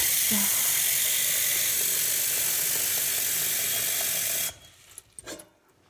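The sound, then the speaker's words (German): A steady, loud rush of tap water pours into a cooking pot for about four seconds, filling it with water to be boiled, then cuts off abruptly, followed by a few faint clinks and bumps. “Ja, ich mache Wasser rein.”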